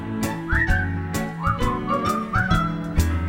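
A person whistles a bouncy tune, short sliding notes rising and falling clearly above a steady instrumental backing with rhythmic beats.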